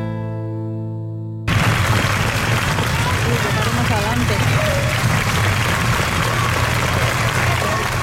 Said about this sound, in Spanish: Estos son los últimos aplausos a Concha Velasco en su tierra, en Valladolid. Ahí está Jesús Julio Carnero. Se ha despedido de su teatro y el teatro se ha despedido de ella.